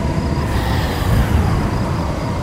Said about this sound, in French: le ciel devint gris et qu'une véritable tornade apparut devant elle.